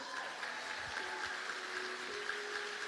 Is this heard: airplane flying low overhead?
no